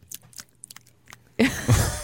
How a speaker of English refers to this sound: Uh, banana noises, That's right. banana chewing or something. I don't know. He says he says, "Do you want to hear a banana?"